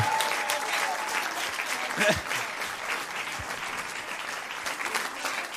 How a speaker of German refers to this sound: Na, der Applaus muss anhalten, bis sie vorne ist.